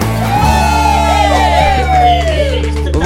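A loud crowd cheers and whoops, with many overlapping high, rising and falling shouts over a steady dense roar that stays strong for about three seconds.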